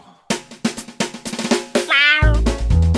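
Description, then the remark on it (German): A quick run of sharp, hissy spray bursts, then a single clear tomcat meow rising and falling, cut off by a loud, rough rumbling noise. “Welch wahrhaft freundschaftliche Geste von dir, deinen letzten Sprühstoß dem Kater zu schenken.”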